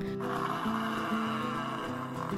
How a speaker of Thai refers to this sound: วันหนึ่งมีควายป่ามาหากินหญ้าที่ริมน้ำ ควายส่งเสียงดัง